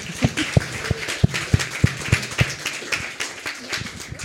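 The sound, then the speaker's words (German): Steady, rhythmic clapping rings out, about eight sharp claps at an even pace, then tapers into softer, scattered patter and faint murmuring in the background. “Genau, ansonsten äh, möchte ich dir recht, recht herzlich danken und bitte um einen großen Applaus”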